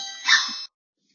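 A doorbell rings once, a bright, buzzy chime that swells for about half a second and then cuts off abruptly into silence.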